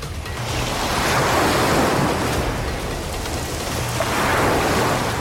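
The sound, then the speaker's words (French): Powerful ocean waves crash and surge onto land in a continuous loud roar, swelling twice as the breakers build and wash in, with no voices present. “Mais en réponse à tout cela, la déesse de la mer fait déferler de puissantes vagues sur les terres.”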